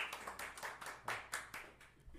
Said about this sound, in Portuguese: Quer bater palmas, que eu tava batendo palmas ali, ó.